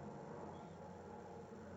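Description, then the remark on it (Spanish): A helicopter passing over Córdoba drones steadily, a low, continuous engine-and-rotor hum that stays fairly faint and even throughout, with no one speaking. “Con el sonido de fondo del helicóptero que pasa por Córdoba mientras voy grabando el podcast”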